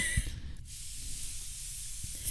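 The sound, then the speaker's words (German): A face mist spray is sprayed onto the face, releasing a soft, steady airy hiss that lasts about two seconds, with a faint bump at the start and no voices. “aber ich muss mir zuerst schnell ins Gesicht spritzen.”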